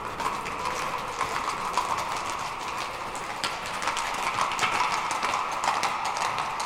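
Horse hooves clip-clop steadily along a hard street, a quick, continuous run of sharp knocks at a constant moderate level over a faint background hiss, with no one speaking.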